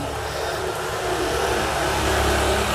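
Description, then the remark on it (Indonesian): A motorcycle engine roars by, a loud, steady rumbling drone that swells slightly louder as it passes, with no one speaking over it. “jadi ntar ya ada motor”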